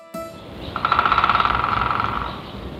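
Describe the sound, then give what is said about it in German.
A woodpecker drums a rapid, even roll of sharp knocks against wood in a forest, lasting under two seconds and slowly fading, clear over a quiet outdoor background. “So klingt der Specht im Wald, aber vielen bleibt in der Stadt nur noch der Laternenpfahl.”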